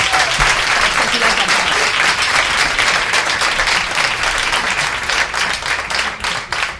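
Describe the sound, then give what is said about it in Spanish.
Loud, sustained applause from an audience at a live Cadena 100 radio special with a band at the Jarro Café in Madrid fills the whole clip, a dense wash of many hands clapping at once without pause, staying strong before easing slightly near the end. “Un aplauso”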